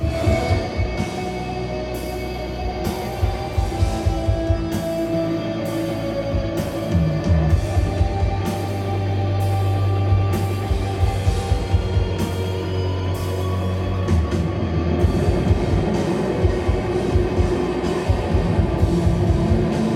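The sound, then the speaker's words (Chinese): A post-rock band plays live at an annual post-rock season show in Shanghai, a loud, dense wall of sound, with a steady driving drum pulse, sustained heavy bass and layered, droning guitars that build and thicken throughout, with no voices heard. “那我们要不一起听一下当时…的这个录音？”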